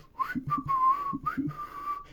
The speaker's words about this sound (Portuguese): Sabe aqueles caras que fazem coisas assobiando? Aquele cara que vai no mercado e.